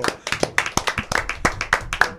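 A short burst of audience applause for Dari Terrero: many hands clapping at once in a quick, uneven patter of sharp, crisp slaps, steady and fairly loud for a couple of seconds with no voices.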